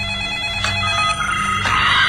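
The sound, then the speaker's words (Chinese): A telephone rings loudly and steadily, a bright, buzzing electronic trill with a couple of sharp pulses in its pattern, and no one talks over it; it is a call from Victoria to Marvin. “原来是维多利亚给马文打来了电话。”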